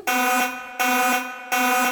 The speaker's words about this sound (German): Spoiler-Alarm!